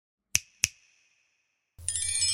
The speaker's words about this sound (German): Die Fee kicherte und schnippte mit den Fingern.